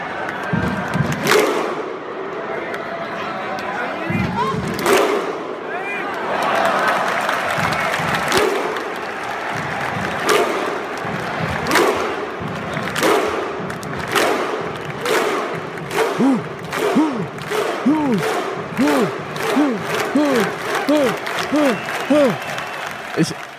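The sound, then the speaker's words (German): A prerecorded crowd sound effect played in: a large crowd roars and cheers, then breaks into loud unison claps, each paired with a deep shouted grunt, starting slow and steadily speeding up into rapid rhythmic clapping. “Ja, das, fehl, das Klatschen fehlt, aber ich muss irgendwie ein Mikrofon festhalten.”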